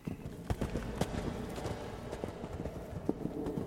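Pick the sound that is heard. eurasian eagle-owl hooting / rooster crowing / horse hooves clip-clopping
horse hooves clip-clopping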